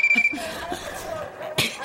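A mobile phone rings with a thin, high electronic tone, then a softer, steady melodic ringtone running underneath a few brief thumps and rustles.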